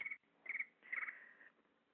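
Short bursts of bright, electronic cricket-like chirping from an iPhone timer alarm, three quick pulses in an uneven rhythm, fairly loud, with no talking over them.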